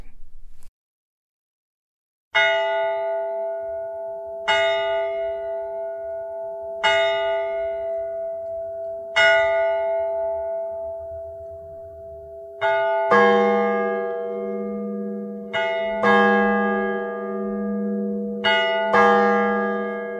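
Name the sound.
cathedral bell striking noon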